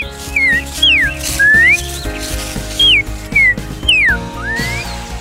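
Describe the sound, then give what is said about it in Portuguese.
A five-year-old boy who lived on a farm in the interior of São Paulo, Brazil, imitates a trinca-ferro's song with his throat, producing a series of bright, whistle-like phrases that swoop up and down in pitch, with short pauses between them and a steady low hum underneath. “É muito bacana essa história porque ele não sabia nem assoviar, mas ele fazia o som do trinca com a garganta.”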